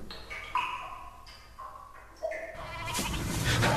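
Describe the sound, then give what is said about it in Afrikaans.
Goats bleat urgently as they are being caught, in a rapid, overlapping series of strained cries, ending in a louder, noisy commotion as the calls pile up. No one speaks. “Die lieus is besig om my bokke te vang”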